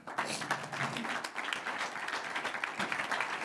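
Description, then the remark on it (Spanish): An audience breaks into applause for the Lord, a dense, steady wash of many hands clapping at once, sustained at an even level throughout with no speech over it. “Un aplauso al Señor.”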